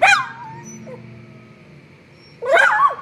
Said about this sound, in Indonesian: Gue pernah kedengar suara anjing ngegonggong di malam hari.